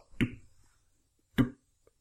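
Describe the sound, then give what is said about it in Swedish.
Two sharp, dry taps about a second apart, fairly loud, with silence between them: a simple tapping that mimics the knock of a rubber bouncing ball. No one speaks. “Men, men då hade han ett exempel som var om man spelar in ljudet av en studsboll. Då låter det väl bara så.”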